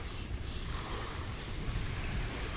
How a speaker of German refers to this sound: Ein kleiner Sandstrand befindet sich da. Und die Wellen, wie du sie gerade hörst, machen mein Leben besser.